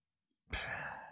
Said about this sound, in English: I don't know if you just heard her sneeze. I didn't.